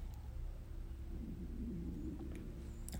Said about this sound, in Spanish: ¿Escuchas mi estómago? Esta es como la tercera vez que suena.